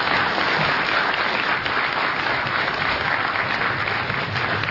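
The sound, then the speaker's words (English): An audience applauds both debaters after a debate, steadily, a dense, continuous wash of many hands clapping at an even loudness throughout, with no voices breaking through. “Thank you, gentlemen, and I think we should uh, offer a round of applause to both of our debaters for a vigorous and yet collegial debate.”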